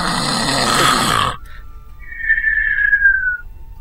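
Loud snoring of a sleeping man, someone's brother: a long, harsh rasping snore cuts off abruptly, then a thin high whistle glides slowly downward before fading. No one speaks.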